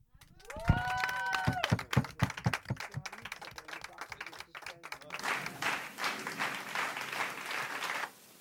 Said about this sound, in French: Merci, merci, ils m'applaudissent.